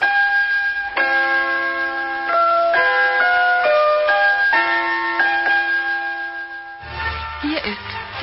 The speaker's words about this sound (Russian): первое, что я услышал по вот этому приемнику, это были позывные «Радио немецкая волна». До сих пор помню вот эту вот отбивку.